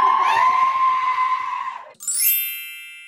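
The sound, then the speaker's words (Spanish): A man lets out a loud, sustained shout lasting about two seconds, strained, then it cuts off and a bright chime rings out and fades. “Voy a empezar el, la, la Season 5 también pegando gritos, así que...”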